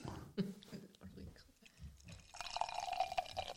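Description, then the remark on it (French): Beer pours steadily into a glass, a rising fizzy rush lasting the final second or so, preceded by soft murmured talk and faint drips. “Alors je ne sais pas si vous entendez le son.”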